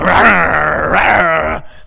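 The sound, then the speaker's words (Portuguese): A person imitates a dog angry at its own paw for being too close to its food, producing a sustained, rough growling snarl with a harsh, voiced texture that holds steady for over a second and a half before cutting off abruptly. “Já viu aqueles cachorros que ele vai comer ração e ele fica com raiva da própria pata que está muito perto da ração?”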